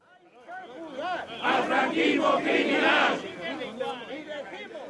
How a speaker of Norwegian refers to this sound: Et par hundre trufaste støttespillere er på plass utenfor rettslokalet i Madrid. Det er en omstridt mann det viser støtte til.